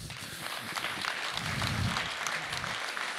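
A crowd applauds steadily, a dense wash of many hands clapping at once, sustained and fairly loud throughout with no voices over it, welcoming a man onto the stage.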